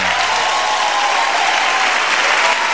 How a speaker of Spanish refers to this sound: Quiero que este humilde y sincero y hermoso aplauso sea para